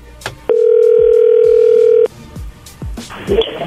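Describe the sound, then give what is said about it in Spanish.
A steady electronic telephone tone signals an incoming call, sounding once for about a second and a half, a flat mid-pitched beep that cuts off abruptly, followed by faint clicks and low background murmur. “Oye, entró ahí, contéstale tú.”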